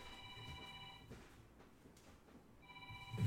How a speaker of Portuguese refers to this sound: De onde tá vindo esse telefone? É um telefone do fantasma aqui, pessoal. Fantasma? É o pessoal aqui que colocou o telefone fantasma aqui com a gente. Sei não. Vou falar uma coisa pra Eita, beleza. Ô, pessoal, telefone aí.